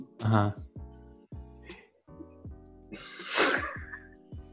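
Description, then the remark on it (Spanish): A person acts out a sneeze with their voice, a sharp breathy burst followed by a louder wet-sounding one, while repeated harmonic tones pulse steadily in the background. “Y entonces, este, de repente, a mitad de la escena, estornudo.”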